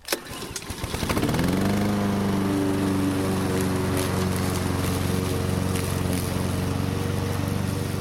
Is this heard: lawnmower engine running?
yes